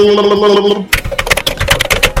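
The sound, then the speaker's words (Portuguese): A brief stretch of a voice gives way to rapid keyboard typing, a dense flurry of quick clicking keystrokes that continues steadily to the end. “Enquanto eu, não tava eu digitando aqui até...”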